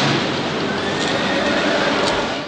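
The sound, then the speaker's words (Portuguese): A loud, harsh, horse-like whinny from a man transforming into a horse-like monster, shown in a video, raspy and sustained for a couple of seconds, with no talking. “mostra um vídeo de um homem se transformando em um monstro, parecido com um cavalo.”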